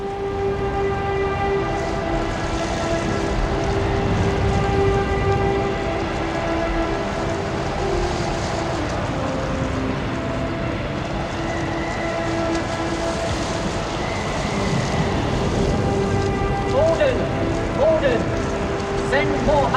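Heavy rain pours down outdoors in a dense, continuous roar that holds steady from start to finish, with a sustained droning tone running underneath the downpour.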